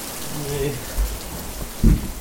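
Heavy rain pours down in a steady, dense, constant hiss outside an old granary where people shelter from it, with a couple of dull low thuds breaking through and a faint murmur of voices in the background.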